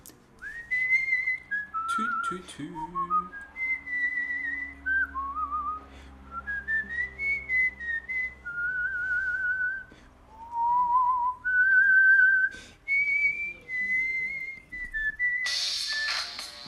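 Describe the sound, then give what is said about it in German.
A person whistles a melodic tune for several seconds, the pitch gliding and hopping between sustained notes, with a few breathy syllables and a brief noisy burst near the end. “Und da wir jetzt noch ein paar Minuten haben, weil ich habe ja eigentlich drei Minuten, pfeife ich noch ein Lied.”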